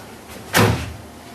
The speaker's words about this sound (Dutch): En voor die kast staat een, een man, volwassen man, met een stapel papier in zijn handen. En die man die loopt met die stapel papier loopt op die kast af en botst